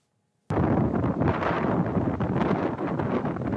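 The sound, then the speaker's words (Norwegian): After a brief moment of silence, strong wind suddenly roars in along the coast of Antigua in the Caribbean as Hurricane Irma approaches. It is loud and steady, with gusty buffeting against the microphone that continues without a break. No one speaks. “Det blåser allerede kraftig langs kysten i den karibiske staten Antigua, der Irma er ventet å treffe land i løpet av noen timer.”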